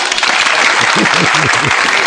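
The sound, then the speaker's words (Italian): A dense wash of canned applause played on a radio show as applause of encouragement for a singer, steady and loud throughout, with a few faint voiced tones rising and falling in the low register beneath the clapping. “Uno degli applausi più finti della radiofonia, credo mondiale, questo qua, eh, questo qua.”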